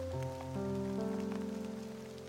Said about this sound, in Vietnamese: rồi băng mình trong cơn mưa chiều nghiệt ngã tiếng của nó hòa trong tiếng mưa vé số đây